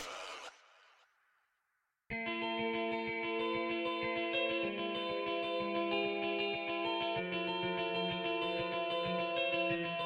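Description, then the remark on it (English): A radio-style reverb effect: a brief filtered burst trails off into an echoing tail and fades to silence, then a loud, dense electronic beat with steady rhythmic pulses kicks in. “Radio Reverb.”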